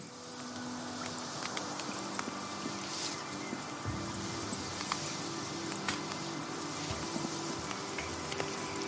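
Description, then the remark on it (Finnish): A crackling campfire sound effect from an effects library, with scattered sharp pops and snaps over a steady, droning synthesizer pad made in 1998, both holding at an even moderate level throughout, with no voices. “Mä kuulen tässä tehosta kirjastosta otetun nuotio tuli äänen ja taustalla on tällainen sanoisin, että 98 valmistettu syntikka, jossa on tällainen bad soundi.”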